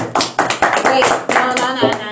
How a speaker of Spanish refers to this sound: Eso. Un aplauso. Como hombre.